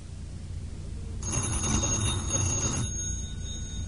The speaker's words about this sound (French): Le téléphone. C'est le téléphone.